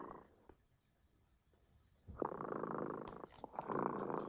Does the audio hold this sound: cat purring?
yes